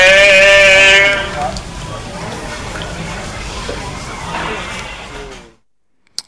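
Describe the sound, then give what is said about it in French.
A gondolier in Venice sings a long, wavering note, then carries on in a looser, rougher melody over a steady background wash before stopping abruptly. “Voilà, vous aurez compris, pas besoin d'aller à Venise, il suffit d'écouter Alternante et vous aurez le bonheur d'être euh, assis dans une gondole et d'écouter le, le, chant du, du, gondolier.”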